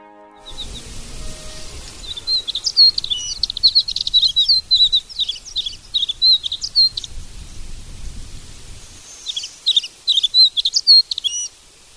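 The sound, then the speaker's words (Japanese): An alpine accentor sings a long, rapid warbling song of high, bright trills and chirps, pausing briefly before resuming, over a low rumble of wind, in the Zao mountains around Mount Katta on the Yamagata–Miyagi border in Japan, about 1,700 m up, above the treeline among rocks and boulders. “山形県と宮城県にまたがる蔵王連峰勝田岳周辺は1700メートルほどの標高ですが北に位置する蔵王は森林限界を超え石や岩がゴロゴロした地形が続いています聞こえてきた小鳥のさえずりは岩ひばりです”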